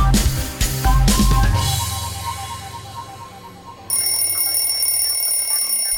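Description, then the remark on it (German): An alarm clock waking sleepers: a loud bell-like ringing cuts in sharply after a few seconds, a steady high metallic jangle, following a brief low rumbling passage with a few percussive hits and no talking. “Der Wecker reißt sie aus dem Schlaf.”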